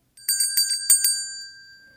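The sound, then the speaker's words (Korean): A bright correct-answer chime, marking a right answer in an English-language lesson quiz, rings out in a quick run of five or six metallic strikes, then its clear tone lingers and fades away. No voices are heard. “딩동댕! 아주 잘하셨습니다.”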